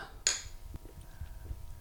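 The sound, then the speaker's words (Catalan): A single bright clink of beer glasses touching in a toast, a sharp ringing tap that fades quickly, followed by soft low rustling and faint handling sounds. “Sí, brindem i... Procedim, procedim, sí?”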